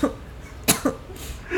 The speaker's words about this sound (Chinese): 让我咳嗽一下。